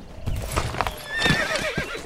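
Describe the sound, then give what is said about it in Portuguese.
Horses whinny with a high, wavering call over a steady clatter of hooves clip-clopping on a forest trail, the neigh rising sharply midway through the short stretch. “Os cavalos não vão conseguir passar.”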